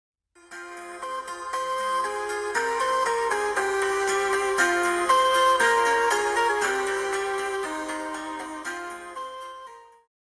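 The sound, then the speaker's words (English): A bright, tinkling electronic ringtone melody plays steadily for about ten seconds, fairly loud, with no voices over it, as an outgoing phone call rings before being answered. “Let's get Joe on the phone.”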